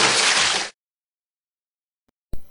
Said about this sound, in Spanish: ¿Escuchas ese chapoteo? Sí, debe ser de nuevo la serpiente.